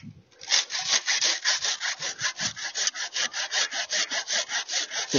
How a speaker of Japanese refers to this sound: その果樹の一本の上にですね、まだちっちゃい果樹、えー、の上に、追いかぶさる、大きな木の枝を今、切ってます。メシメシっととか聞こえたかと思います。